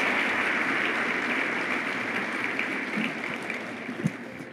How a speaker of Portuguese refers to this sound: Vamos dar outro aplauso.